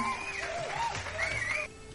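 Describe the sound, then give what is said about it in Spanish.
A short burst of applause with a dense, crackling clapping wash and rising, wavering whistles or cheers over it, steady and fairly loud before dropping off abruptly near the end. “Un pinche aplauso a todos ellos.”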